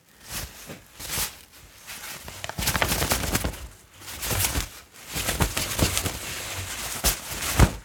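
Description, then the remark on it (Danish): Stiff taffeta fabric crinkles and rustles in repeated crisp bursts as it forms very sharp folds, the crackling rising and easing over several seconds, with no voices present. “det kan være meget stift, og det får, når det krøller, får det nogle meget skarpe folder. Det kan man næsten også høre.”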